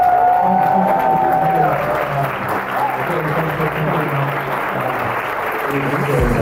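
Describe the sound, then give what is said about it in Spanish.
Sustained applause from a crowd, a dense steady clatter of many hands clapping, loud throughout, with a few cheers and voices mixed in underneath. “merece un gran aplauso.”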